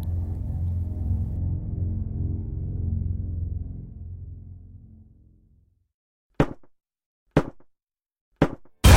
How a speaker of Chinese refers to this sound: 一阵敲门声钻入了我的耳朵，敲门声离我很近，我揉了揉眼睛，循声望去，在不远处的楼梯旁有一扇门，那门的颜色和墙是一样的，灰灰的， 如果不是这敲门声，我几乎察觉不到它的存在。